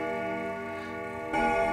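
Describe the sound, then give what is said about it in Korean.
A grandfather clock begins striking midnight, twelve strikes, with a rich, ringing tone; one resonant strike hums and fades, then another loud strike lands near the end, clear with no talking. “그 순간 자정을 알리는 괴종 시계 소리가 12번이 울리기 시작했습니다.”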